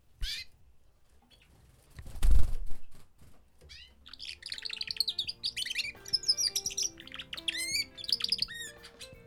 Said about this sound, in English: On the way there, I found out my neighbor in Falkirk keeps canaries. So I stopped by to take a look and found out what churlish male canaries sound like as they practiced finding their true singing voices.